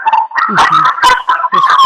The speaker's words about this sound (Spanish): Ahí tenemos al, al perrito haciéndonos compañía.